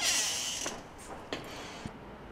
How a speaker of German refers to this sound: öffnen die Tür und treten hinaus auf die luftige Terrasse. Ich gehe raus.